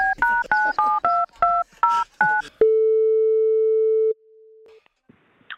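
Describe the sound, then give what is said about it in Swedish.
A quick run of about eight dual-tone keypad beeps as a phone number is dialed to call a person who has a chance to win, then a long, steady mid-pitched ringing tone that drops to a softer, shorter tone before silence. “Och nu har vi en person som vi ska ringa här nu då, mm.”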